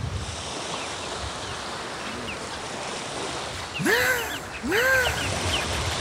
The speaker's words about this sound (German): Das war eine Möwe. Oh ja. Riecht ihr den Dieselgeruch? Hamburger Hafen, Travemünde.